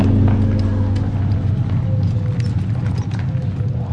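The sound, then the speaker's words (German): A closed two-horse carriage carrying travellers rolls steadily through the silent streets of a country town, its wheels giving a low continuous rumble while hooves clip-clop in a quick, even rhythm, with no one speaking. “Bald darauf rollt der Wagen mit den Reisenden durch die totenstillen Straßen der Landstadt.”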